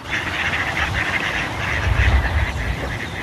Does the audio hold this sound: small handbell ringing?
no